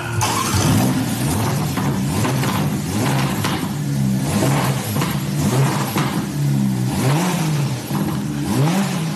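A Ferrari sports car engine revs repeatedly, rising and falling in pitch, with sharp crackling exhaust pops and bangs between the revs, loud with no talking.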